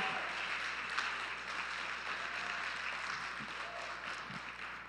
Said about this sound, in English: This is Mother's Day weekend. Can everyone here give a big round of applause for how awesome mothers are in our lives today?